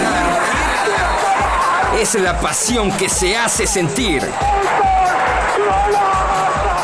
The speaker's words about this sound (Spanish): Cuando escuchamos la grada rugir